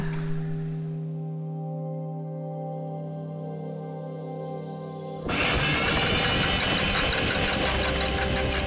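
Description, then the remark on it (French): A boat's anchor winch motor hums steadily in the morning as the boat is prepared, then abruptly kicks into a louder, harsher grinding clatter that continues to the end. “Le lendemain matin, je suis réveillée par le bruit du treuil de l'encre.”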